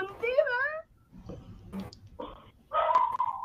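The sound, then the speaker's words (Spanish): A dog barks in a few short, high-pitched bursts with a whiny, yelping edge, and quieter gaps fall between the louder calls. “ahí empezó el perro okay. culpa al perro”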